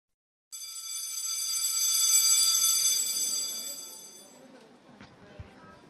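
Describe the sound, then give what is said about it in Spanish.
A loud electric school bell rings continuously for about four seconds to mark the end of recess, with a bright, harsh metallic buzz, then cuts off, leaving a faint background murmur and a brief knock. “Sí, es el timbre lo que acaban de escuchar. Terminó el recreo.”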